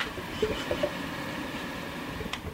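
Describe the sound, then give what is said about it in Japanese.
A home humidifier, recently cleaned and with a clean filter, runs with a steady, rough whirring drone and airy hiss, moderately loud, with a few faint gurgling blips near the start and no voices. “これ加湿器ちょっとだけ掃除したのよ掃除してフィルターきれいになったから少しきれいになったんだけどそれでもすげえ音聞こえてっかな俺うちの加湿器のちょっとうるせえ音”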